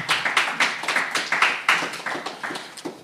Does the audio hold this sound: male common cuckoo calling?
no